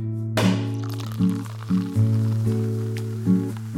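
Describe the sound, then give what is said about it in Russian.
A sparkling wine bottle pops open with a sharp burst, followed by a soft crackling fizz, all over a steady low musical drone. “Так что открывайте вместе с нами бутылочку игристого, и мы начинаем.”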